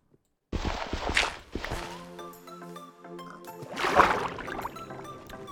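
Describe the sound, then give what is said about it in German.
Game-style water splashes as a character jumps into the water and swims briefly toward an island, a loud burst of splashing followed by softer strokes and another surge, over a steady musical tone. “Ich springe jetzt einfach ins Wasser und schwimme kurz.”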